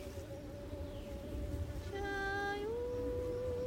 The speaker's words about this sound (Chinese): 好大声的苍蝇声，我们今天的结尾就这样，嗯嗯嗯嗯嗯，好，你把它当成宇宙的声音，嗡嗡嗡嗡嗡嗡嗡嗡